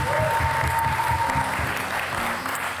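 A live audience at Pakhuis de Zwijger applauds steadily during a live recording, a dense wash of many hands clapping at once, sustained and fairly loud from start to finish with no speech over it.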